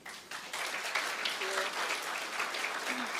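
A crowd breaks into sustained applause, many hands clapping densely and steadily after a brief quieter start, filling the room at moderate loudness with a faint voice or two underneath.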